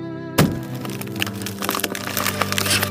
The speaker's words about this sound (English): The man swung his axe and it stuck in the closet door, with a huge bang tearing into the flimsy wood.